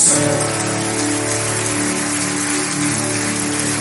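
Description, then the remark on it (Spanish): A church audience applauds God loudly and steadily, a dense wash of many hands clapping that holds for several seconds, with a sustained musical drone humming underneath and no voices. “Alguien le puede dar un fuerte aplauso a nuestro Dios.”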